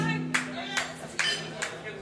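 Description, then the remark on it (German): Five crisp claps from the audience at a band's show, between songs, land in a slow, steady rhythm, evenly spaced about half a second apart, over a faint low hum and murmur of voice in the background. “Egal wer klatscht, wir freuen uns unglaublich, wenn ihr klatscht.”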